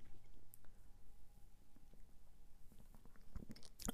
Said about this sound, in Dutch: Dus ik neem even een slok van mijn koffie.